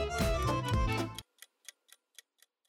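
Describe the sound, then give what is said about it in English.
A kitchen timer ticks in a quick, steady rhythm, six crisp, fairly soft ticks heard alone, right after a dense, loud burst of sound cuts off abruptly. “All before the timer goes off. 24 minutes and 39 seconds to go.”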